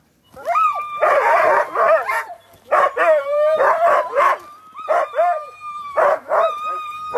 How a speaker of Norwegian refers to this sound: Det her er altså lyden av Petter Karlsson sitt hundespann. Vi skal til Finnmarksløpet i eh, 2008. Her er snakk om den lengste distansen. Det er 1200 km. Eh, går over Finnmarksvidda fra Alta, rundt hele Finnmark, Kirkenes og vidda ned igjen til Alta.